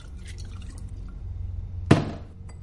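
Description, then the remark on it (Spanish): Vodka splashes briefly as it is poured into two drinking glasses, with one sharp burst near the end, set against a low steady hum, with no voices. “Víctor llena ambos vasos.”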